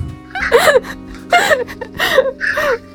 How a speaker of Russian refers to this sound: какая потрясающая кошка. Прям слышно, да, как она вопит? Она снова меня потеряла. Она очень настойчивая, да. Она сидит рядом, она сидит спиной ко мне и не видит меня.